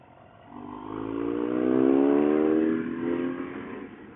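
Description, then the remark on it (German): A powerful motorcycle engine revs up strongly while being ridden on a road, its pitch climbing and holding loud before easing slightly, with steady wind and road rumble underneath and no voices. “Ja, das mag ich übrigens, wenn ich immer so ein bisschen stärkere Motorräder fahre”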